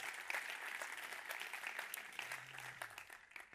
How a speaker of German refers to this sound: aber ganz speziell, wenn wir unsere Locations, die wir werden schauen, ICF Thun, ICF Biel, ICF Interlaken, ICF Oberwallis, einen riesen herzlichen Applaus geben. So cool, dass ihr da seid. Sensationell.